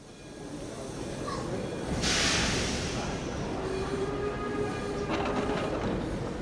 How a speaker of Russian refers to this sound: Когда поезд трогается, он читает тебе новую поэму.